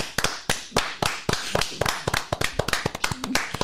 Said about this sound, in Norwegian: Kan du klappe i ti sekunder før, faktisk? Ja, vi gjør det. Ja. kom igjen.